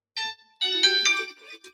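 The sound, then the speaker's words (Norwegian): A doorbell chimes indoors: a brief bright tone, a short pause, then a longer, fuller ringing chord that slowly fades. No voices over it. “Ah, da ringer det her.”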